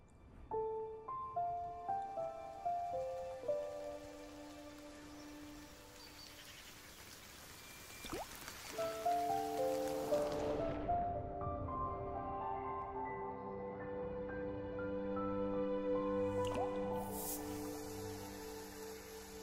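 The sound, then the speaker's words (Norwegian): The audio logo of the Farris sparkling water brand: a bright jingle of plucked, chiming notes, then a quick rushing fizz like sparkling water being poured, followed by fuller sustained musical tones to the end. No one speaks. “Farris-lyden, som, som, er et eksempel på, på, på et, et, selskap og en merkevare som, som ikke har endret eh, på, på hovedelementet i, i lyden sin.”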